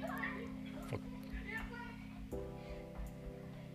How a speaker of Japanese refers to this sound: 聞こえますこれ。隣のね、えー、子供、キッズたちが、えー、楽しそうに遊んでますけど、隣がね、2人兄弟だと思うんですけどね。